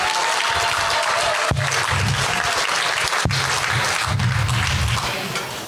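A crowd applauds the scholarship winners, a dense, sustained wash of clapping at full volume that holds for several seconds before beginning to thin out at the end.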